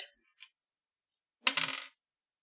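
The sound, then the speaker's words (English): A ten-sided die is rolled during a tabletop role-playing game, clattering across a hard surface in a quick burst of rattling bounces, preceded by a couple of faint clicks, with no talking. “What do you want me to roll? Uh, how about a D10?”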